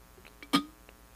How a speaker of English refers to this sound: So, uh, Jesus Christ, I got something in my throat. Let me clear my throat.